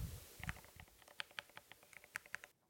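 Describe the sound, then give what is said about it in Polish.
Rapid clacking keystrokes on a very tall, heavy mechanical keyboard, a dozen or so sharp clicks in an uneven typing rhythm, fairly crisp, with no one speaking. “E, jest, spróbuję coś napisać na klawiszach.”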